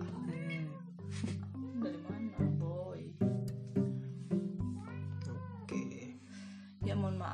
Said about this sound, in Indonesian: maaf ada nah kan dia bunyi lagi kan ya udah deh karena ini udah minta makan juga si kucing ini udah udah makan udah makan ya udahlah